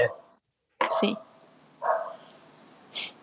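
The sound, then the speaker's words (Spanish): A dog barks three times at roughly one-second intervals, each bark sharp and fairly loud, with a faint background hum in between. “Hasta aquí su perro bonito se terrible el perro.”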